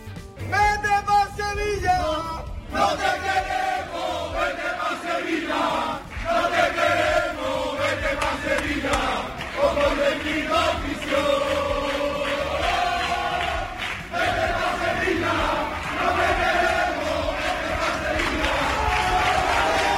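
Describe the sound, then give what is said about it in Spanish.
A crowd of Cádiz football fans outside the Cádiz club facilities shouts and chants together in loud, sustained unison, criticizing Vizcaíno, their voices rising and falling in a rhythmic protest chant that carries through the entire stretch without pause. “Así ha sido, pues, no sé, criticado Vizcaíno.”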